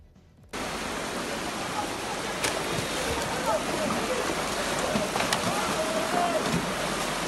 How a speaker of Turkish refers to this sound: Yağmursa pek çok noktada kuvvetli sağanak şeklinde yağdı.